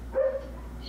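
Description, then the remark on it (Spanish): A dog gives one short, tonal bark, fairly quiet, followed by a low steady background hum with no one talking. “putos perros, me van a salir toda la.”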